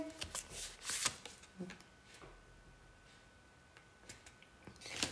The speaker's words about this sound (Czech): Já se na to podívám, já vytáhnu ještě další kartu.